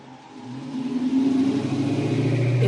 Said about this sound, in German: Ein Autofahrer nach dem anderen rollt heran und füllt die leeren Sitze mit Pendlern auf. Der Erste in der Reihe ruft, wo es hingeht, dann wird entsprechend nachgerückt.